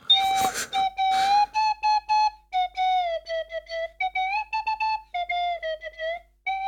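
A small flute plays alone, fairly loud, starting with breathy puffs before a string of short, halting notes that wander up and down as if feeling for a tune.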